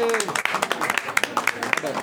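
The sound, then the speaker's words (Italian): A burst of applause, with many dense, irregular claps rattling on steadily for about two seconds. Voices and a few high cheers or whistles rise through the clapping. “Io sto applaudendo per me stesso, comunque mi stimo.”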